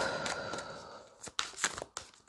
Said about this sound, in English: You may hear the card shuffling. I normally don't do this, but uh, um, okay.